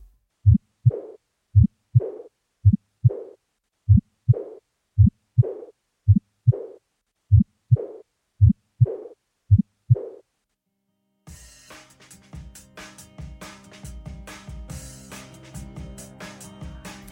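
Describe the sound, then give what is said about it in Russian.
Steady heartbeats heard through a stethoscope over the second to fourth left intercostal spaces, each lub-dub followed by a soft, quiet whooshing heart murmur, repeating at an even pace for about ten seconds before music takes over. “Они довольно тихие, их легко перепутать с дыхательными шумами поэтому нужно попросить пациента сдержать дыхание на выдохе.”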